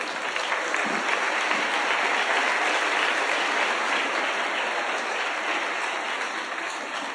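Sustained audience applause, a dense, steady wash of many hands clapping at an even loudness for about seven seconds, with no voices standing out.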